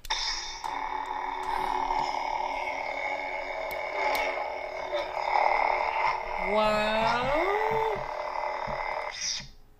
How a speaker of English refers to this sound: I love turning on sabers. That's weird that his does that noise though. That is how it sounds though from the game.